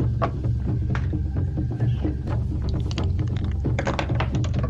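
Dice clatter and tumble across a hard table, a burst of quick, close clicks and knocks that scatter irregularly before settling, over a steady low background hum.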